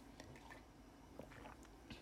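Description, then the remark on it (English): A quiet sip of hot coffee, with soft slurping and small wet mouth sounds in a couple of brief bursts, then a faint swallow. No one speaks. “Okay, let's take a sip of coffee, guys.”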